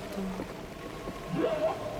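whale call

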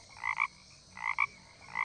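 toad croaking

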